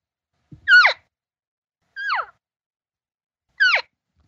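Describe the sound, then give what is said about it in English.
Three short, descending nasal mews, imitated cow elk social calls as elk talk while moving around, spaced evenly about a second and a half apart, clear with silence between them. “just talking social as they're moving around.”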